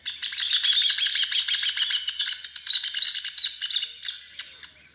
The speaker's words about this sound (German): Hier wird der Töpfervogel Ornero genannt.